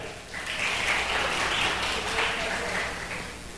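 An audience claps steadily for a few seconds, a dense, even patter of many hands at moderate loudness that holds without a break and then tapers slightly toward the end.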